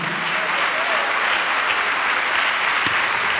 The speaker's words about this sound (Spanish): Dale un aplauso a Cristo, hermano, a su nombre gloria.